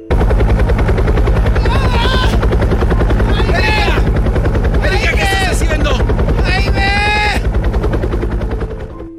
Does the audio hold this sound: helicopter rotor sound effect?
yes